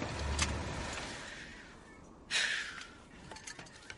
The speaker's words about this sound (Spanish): Para. Da marcha atrás y aparca en un desvío junto a los árboles. El coche es de Duluth. Gus para el motor.